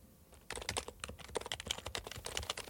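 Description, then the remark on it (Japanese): Rapid clicking of keys on a Happy Hacking Keyboard computer keyboard, a steady stream of crisp taps, starting after a brief quiet moment and continuing throughout with no voices. “このキーボードは一生もの。ハッピーハッキングキーボード。”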